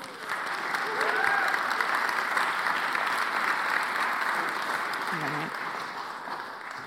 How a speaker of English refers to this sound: Give him a round of applause.